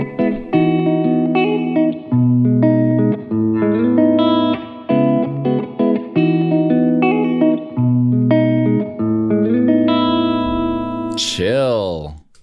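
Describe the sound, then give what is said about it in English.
An electric guitar plays layered chords through the SP 2016 reverb preset of an H90 harmonizer pedal, notes blooming and sustaining into each other, ending with a swooping pitch-bent swell that fades out. Steady, loud, no talking. “let's do one more because these sound pretty good sp 2016 reverb”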